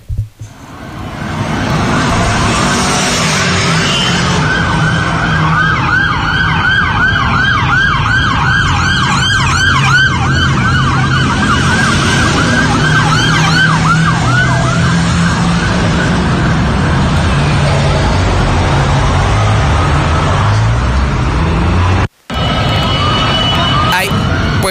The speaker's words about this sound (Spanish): Esto fue sobre Avenida Universidad. Ahí inició la persecución. Vamos con esta primera parte del video y va a escuchar la cantidad impresionante de sirenas y de patrullas que participaron en este operativo.